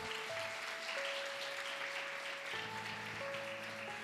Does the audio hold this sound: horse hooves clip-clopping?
no